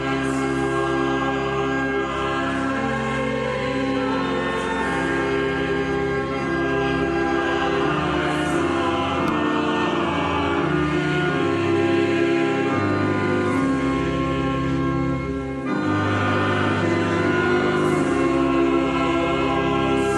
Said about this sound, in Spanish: escuchamos un cántico dedicado a la Madre, la música de apertura del Santo Rosario.